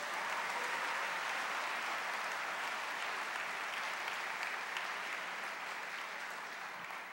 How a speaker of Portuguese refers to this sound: Quem quer fazer Deus sorrir, aplauda ele bem forte.